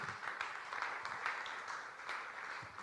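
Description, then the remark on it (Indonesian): In a church, a crowd claps steadily for about three seconds for the team doing the lunch party, a dense patter of many hands blending into a continuous crackle at moderate volume, with no voices standing out above it. “Boleh kita beri tepuk tangan?”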